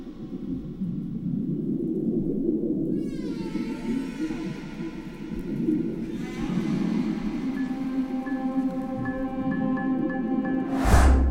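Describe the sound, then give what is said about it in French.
Long, low moaning whale calls drift and swoop over a dense underwater rumble, with rising and falling tonal cries and a brief sharp burst near the end. “Notre regard sur les baleines a évolué à travers les siècles.”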